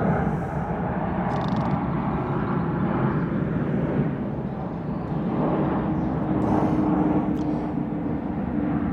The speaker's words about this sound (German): ups, schon wieder ein Flugzeug. Oh, ja. Flieg in den Süden. Ja. Südosten. Der fliegt jetzt dahin, wo ich wohne.